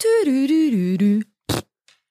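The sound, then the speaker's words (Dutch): A drawn-out, buzzy, loud fart sound wobbles in pitch for just over a second, then a short hissy burst and a faint trailing puff follow after a brief pause. “maar je ziet geen scheet. Maar je hoort hem, je hoort hem alleen.”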